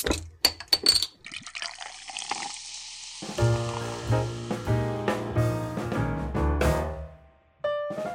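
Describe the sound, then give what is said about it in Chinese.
A bottle of Lichun amber ale, the first bottle opened in the Year of the Tiger, is opened with a few sharp clinks and a hissing release of fizz, then beer glugs steadily into a glass, the pouring tone rising as it fills. “今年虎年的第一开瓶，我想在这个新年一开始就可以喝到立春，感觉就是满满的喜气洋洋加幸福哦。”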